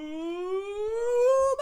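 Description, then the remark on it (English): A dog, one of two dogs named Sadie Dog and Ween Dog, lets out one long, steady howl that climbs slowly in pitch, fairly loud, ending with a brief break at the tail. “With me, as always, are the dogs.”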